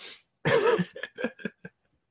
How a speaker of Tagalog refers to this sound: Kaya, umubo ako. Nangante yung Gra- lalamunan ko. Grabe.